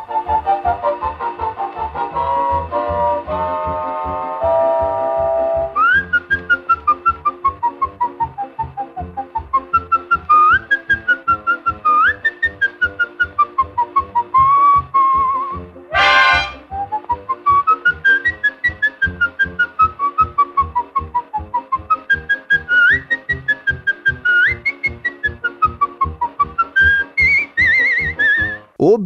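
A man whistles a lively, bouncing melody over a full orchestra playing a brisk, rhythmic accompaniment; the whistling is loud and clear, sliding and trilling through the tune without any talking.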